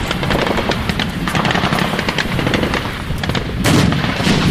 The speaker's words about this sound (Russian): Противник применил противотанковый гранатомет РПГ-26 и в результате прямого попадания ПТР-82 уничтожен.